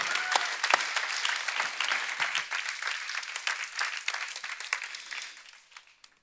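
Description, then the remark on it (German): An audience claps steadily, a dense patter of many hands at a fairly even level, which thins out and fades away over the final second. “Dieser Applaus ist für dich und dein Team, für jeden Mitarbeiter, der das möglich macht.”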